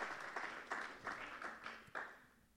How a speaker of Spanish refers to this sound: Los papás den un fuerte aplauso. Su hijo puede dominar a este mundo.